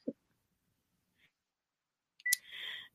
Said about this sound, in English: And I'm hoping that phone is going to stop in a minute.